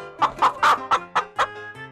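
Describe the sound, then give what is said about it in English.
A hen clucks in a quick series of about six short, bright calls, fairly loud, with brief gaps between them and no talking. “This is a hen. The hen ran.”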